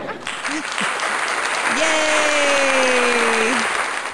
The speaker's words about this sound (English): I love the fake round of applause.